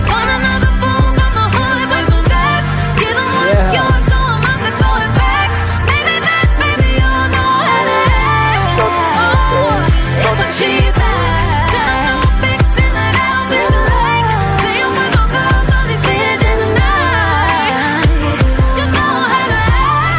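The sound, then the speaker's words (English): A loud hip-hop R&B beat from a collaboration song by two singers plays continuously, with punchy kick drums and a steady rhythm under layered melodic synths, filling the whole stretch without any talking over it. “Cheap back sounds great. I love when the beat comes in.”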